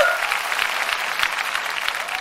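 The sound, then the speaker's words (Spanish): A church audience applauds steadily, a dense continuous patter of many hands clapping at an even, fairly loud level for a couple of seconds. “Un aplauso, volvieron no estaba muerto.”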